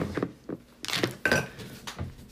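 A skillet is handled, with pans clinking and clattering together in a few sharp metallic knocks and bright rattles, moderately loud with no talking.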